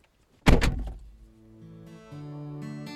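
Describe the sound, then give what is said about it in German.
A person gets into a car and the door shuts with one heavy thunk, then a steady humming drone rises and steps up louder, like the car's fan or electronics coming on. No one speaks. “Steig ein, Kaffee ist fertig.”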